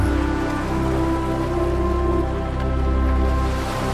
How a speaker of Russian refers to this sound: вы лежите в своей бамбуковой хижине. Слышите прибой океана.